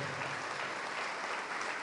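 A large church audience claps continuously, a dense, steady wash of applause with no pauses, applauding the Lord Jesus for each prodigal son and daughter who is returning.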